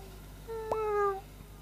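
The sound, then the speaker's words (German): A single drawn-out cat meow, clear, rising slightly then holding steady before fading, heard on its own against a quiet background hum. “Die Katze aber, deren Durst nur noch größer geworden war, antwortete bloß Miau, Miau.”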